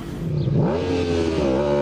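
A father's motorcycle, ridden on a Thursday night trip to the hospital, revs up, its tone rising sharply before settling into a steady, loud hum with a slight wobble, with no voices present.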